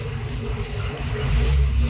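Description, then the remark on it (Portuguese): A car rumbles past on the busy Avenida Perimental Sudoeste in Coab 2, Carapuíba, its low engine noise swelling louder toward the end over a steady wash of traffic hiss, with no voices. “Aqui é movimentado, né? É, aqui é. O carro. O carro.”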